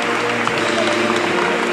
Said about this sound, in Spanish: El aplauso del público que está aquí congregado en esta plaza de Molviedro.